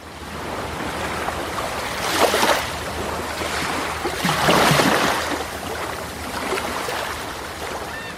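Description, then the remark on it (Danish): Sea waves on the Fehmarn Belt strait between Lolland, Denmark, and the German island of Fehmarn wash and break steadily, with two larger surges swelling louder before easing back into a continuous rushing surf, fairly loud, with no voices. “Under Femern Bælts bølgetoppe skulle der i dag have været en tunnel, så tog og biler kunne køre fra Lolland til den tyske ø Femern.”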